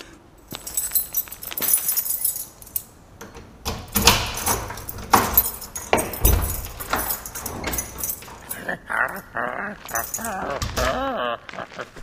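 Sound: keys jangling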